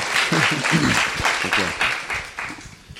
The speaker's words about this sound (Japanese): もう一度皆さん拍手で歓迎しましょう。